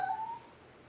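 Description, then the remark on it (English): A single short, high meow from a cat named Echo, faint, trailing off within half a second into quiet background. No one speaks. “Yes, Echo keeps crying. Sorry if you guys can hear it.”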